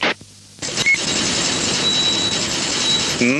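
A dense, printer-like mechanical chattering starts abruptly after a brief quiet moment and runs steadily at a fairly loud level, a rapid busy rattle with no voices.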